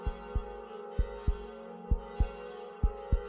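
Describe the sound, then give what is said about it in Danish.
A church door makes deep, heartbeat-like thumping in paired double beats, four pairs at a steady slow rhythm, prominent over a constant low hum. No voices. “Nogle gange banker den, ligesom et hjerte alt levende kommer herfra, siger man.”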